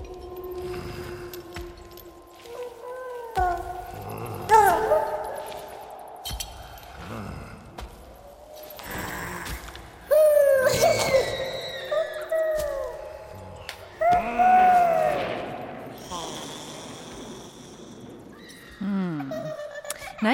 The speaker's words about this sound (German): Und so hören sich Geisterwind und die gepitchten Geisterstimmen